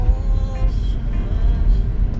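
Steady, loud low-frequency rumble of a car interior while driving, with a constant engine and road drone and faint higher tones drifting through, no clear voices standing out.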